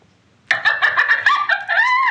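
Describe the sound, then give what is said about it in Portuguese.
An MSN Messenger wink animation sound effect: after a brief silence, a loud, cartoonish burst of clucking, crowing-like tones pulses rapidly, then ends on a rising squawk. No one speaks. “Opa, outra cena do, do MSN era tipo os winks, que deixa eu ver se tem aqui o som.”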